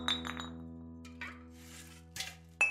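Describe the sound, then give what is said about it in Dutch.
Empty glass bottles, carried as glass waste to a bottle bank across a deserted street at half past three at night, clink together in a quick rattling cluster, then a few more sharp clinks ring out, fairly loud, with bright lingering tones. “Anna loopt met het glasafval naar de glasbak aan de overkant van de straat.”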